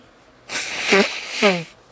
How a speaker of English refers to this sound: sorry if it sounds like I'm doing like sniffing something. I actually like blow my nose kind of a little bit, a little bit on the sicky side.